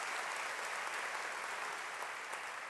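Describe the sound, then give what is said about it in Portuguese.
An audience claps steadily in praise of God during a sermon, a dense wash of many hands sustained evenly throughout with no voices standing out. “Se você crê nisso e quer se envolver nisso, louve a Deus, aplauda ao Senhor.”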